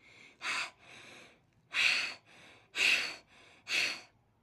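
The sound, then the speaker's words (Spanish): Heavy, breathy panting: about seven ragged breaths in a steady rhythm, forceful exhales alternating with quieter inhales, with no talking around them. “Cuando ya habían recorrido cierto trecho, las señoras oyeron una respiración jadeante a sus espaldas.”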